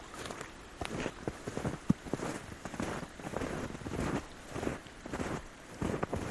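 Water gurgles and splashes steadily in the snowy low mountains, with irregular bubbling pops and soft crunching transients over a continuous rushing hiss; no one speaks.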